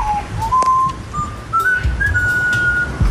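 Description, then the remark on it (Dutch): Pico, a parrot living in the house of N-VA politician Yannick Aerts in Zonnehoven, whistles a short tune, clear pure notes stepping gradually upward in pitch, steady, over a low background rumble with no talking. “Yannick Aerts is voorzitter van de lokale NVA in Zonnehoven zetelt er ook in de gemeenteraad en kocht er vorig jaar een nieuw huis met gratis papegaai van de vorige eigenaar.”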